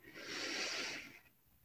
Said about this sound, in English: And we're just going to seal them off with three collective breaths. So we're going to breathe in through our nose